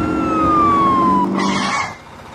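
Emergency sirens from a fire truck and an ambulance rushing to an incident wail loudly, one tone sliding steadily downward over a low engine rumble, followed by a brief harsh noisy blast before fading.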